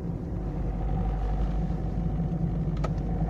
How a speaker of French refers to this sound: Waouh, ça c'est du gros camion. Ou ça c'est du petit camion mais blindé. Il y a un monde sur ce route. même en vacances, je pensais pas que sur ce tronçon on pouvait, euh, mettre autant de bagnoles.